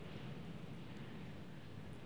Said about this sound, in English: It's a full on storm outside. wow, that is windy.